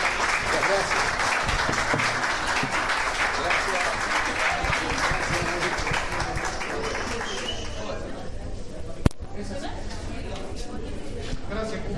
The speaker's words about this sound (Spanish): Bueno, un aplauso, otro más fuerte, bien fuerte a los tres, por favor.